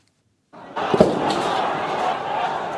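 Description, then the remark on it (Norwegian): A sharp, single bang cracks out over a dense wash of crowd noise and shouting, followed by a fainter pop, as police in helmets and gas masks fire tear gas into a crowd of protesters fleeing in panic in Hong Kong. “Plutselig smeller det, og det er politifolk med hjelmer og gassmasker som skyter tåregass inn i mengden av demonstranter som flykter i panikk.”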